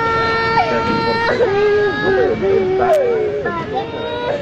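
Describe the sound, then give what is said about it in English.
Children at a border facility cry out for their parents, wailing in high, wavering sobs that rise and fall, loud, continuing without pause over a noisy background of murmuring voices; audio released by ProPublica. “The nonprofit news organization ProPublica releasing wrenching audio of children crying out for their parents at a border facility.”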